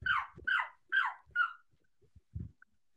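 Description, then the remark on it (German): A person, a brother, imitates a dog, letting out four quick, evenly spaced barks, then a few soft low thumps and breathy noises trail off in the quiet afterward. “Wie Hat sich angehört wie ein Hund.”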